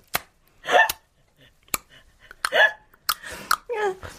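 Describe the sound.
A person vocally imitates a mic check, producing a string of sharp, percussive 'chek' sounds at an uneven rhythm, with brief breathy voiced bursts and 'mic check one two' between them.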